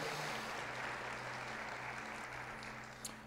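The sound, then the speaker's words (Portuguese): A church audience claps steadily, applauding the Lord Jesus after a sermon, in a dense, continuous wash of applause that fills the room, with a faint low hum underneath and the clapping easing slightly toward the end. “Diga amém e aplauda o Senhor Jesus pela palavra dele que é maravilhosa.”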